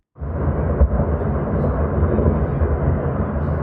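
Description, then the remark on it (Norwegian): A rockslide crashing down on the other side of Sørfjorden in Hardanger, Norway, closing the road: a deep, continuous rumbling roar, heavy in the low end and steady in loudness for several seconds, with a brief stronger thud early on. “Sånn høres det ut på den andre siden av Sørfjorden, når et ras stenger veien der det på sommerstid kjører opp imot 4000 kjøretøy i døgnet.”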